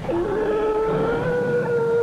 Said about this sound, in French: Les baisers, un peu honteux, suivirent sagement le vent, passèrent au-dessus du bois et entendirent soudain des rugissements, des cris aigus, des barrissements, des grognements.